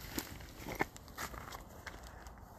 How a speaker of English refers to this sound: Um, yeah, you might hear some crunching and some puffing and panting as I'm walking around a little bit